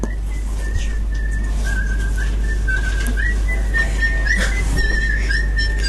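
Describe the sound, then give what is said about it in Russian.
A mobile phone rings during a lecture with a thin, high-pitched melodic tone that warbles and repeats steadily for several seconds over a constant low hum, with no one talking. “Первый телефон – это всегда большой подарок преподавателю, напоминание всем, кто не выключил.”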